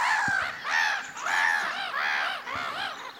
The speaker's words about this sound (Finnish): Naurologit tuli mikin viereen. On se aika vaikuttava tommonenkin laulaja. On, on. Tehokas ääni. Kuulosti siltä, että vaatii puheenvuoroa.